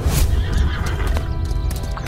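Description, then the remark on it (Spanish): A horse whinnies loudly, its shrill cry wavering over steady hooves clip-clopping on hard ground, with no voices present. “Me apoderé de la cartera y creyendo que el caballo había muerto lo arrastré con gran esfuerzo hasta las zarzas.”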